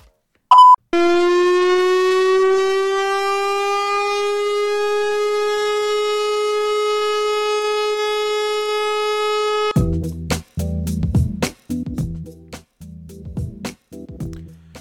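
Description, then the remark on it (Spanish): A giant horn as big as a truck, mounted on a truck, blares one long, steady, deep tone with rich stacked harmonics for about nine seconds after a brief beep, then cuts off into a burst of clattering, irregular noise. “Esto que veis es un camión bocina, una bocina tan grande como un camión, bueno, es una mezcla, va fusionado”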